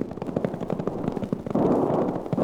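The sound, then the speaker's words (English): Rapid, overlapping gunfire as sheepmen fire on ranchers barricaded in a valley pass, crackling in a dense, steady barrage of sharp cracks, swelling into a louder, continuous roar of shots toward the end. No voices are heard. “From the number of gun flashes I see, those sheepmen have got them outnumbered five to one.”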